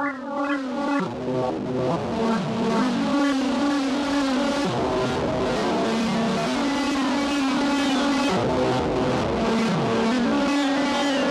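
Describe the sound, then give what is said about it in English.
A synth signal run through a four-band distortion effect drones loudly and continuously, its gritty, buzzing tone sliding down in pitch every few seconds, almost like a revving engine, with no one talking. “Now let's check out the uh, the DPW four band distortion.”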